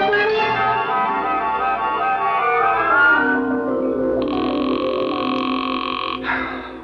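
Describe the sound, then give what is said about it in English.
A telephone ringback tone sounds while a call waits to be answered: a steady electronic buzz lasting about two seconds, following a dense, rattling drone. No one speaks. “Will you answer the phone?”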